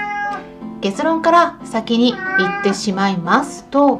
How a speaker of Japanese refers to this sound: すいませんあの猫の声が入ってます